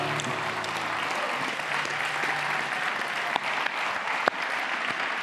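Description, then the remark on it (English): A large crowd applauds steadily throughout for people who shared their testimonies, a dense wash of clapping with a couple of sharper claps standing out and faint voices mixed into the noise. “let's just hear it for all these testimonies. Woohoo!”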